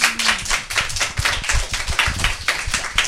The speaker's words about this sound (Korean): 박수 한번 주세요, 여러분.